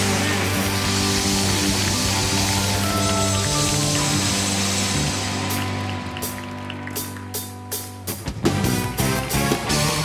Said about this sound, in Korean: 우리 다시 한번 하나님께 감사 영광의 큰 박수 올려드립시다. 할렐루야!